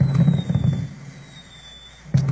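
Rapid booming fireworks crackle and pop for the first moment, fade into a quiet hiss, then one more sharp burst bangs out near the end.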